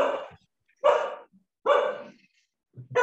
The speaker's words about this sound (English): obviously the dog starts shouting now